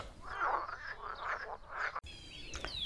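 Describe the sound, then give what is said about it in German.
A frog croaks in three rhythmic, nasal bursts, followed by a brief pause and then quieter outdoor chirping in the background. No one speaks. “Der andere Frosch aber hat bis tief in die Nacht hinein verzweifelt weitergekämpft.”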